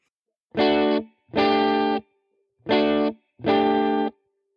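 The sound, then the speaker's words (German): A distorted electric guitar strikes a Dsus4 chord, barred with the index finger at the seventh fret on the D, G and B strings with the middle finger added, four times in a pair-pause-pair rhythm, each loud strum ringing briefly before being cut off, with no talking. “Und diesen Mittelfinger könntest du jetzt ganz bequem benutzen, um einen Desus 4 daraus zu machen. Der klingt dann so.”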